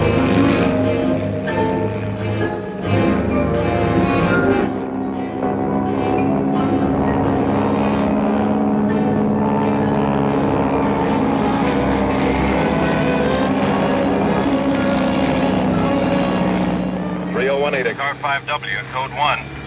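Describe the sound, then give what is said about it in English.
A propeller police plane drones loudly and steadily overhead for the whole stretch, assisting two police officers driving out to a crime scene, its engine hum holding an even, continuous pitch, with the sound shifting slightly near the end. “Two police officers drive out to the crime scene with the assistance of a police plane.”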